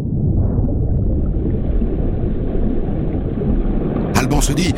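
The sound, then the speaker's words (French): A deep, heavy rumble of an Arctic iceberg as a large chunk breaks off, heard underwater at about 40 metres depth, rolls on loud and unbroken, low and booming, with a few sharper cracking bursts near the end. “Et puis soudain, un grondement, comme une explosion sourde”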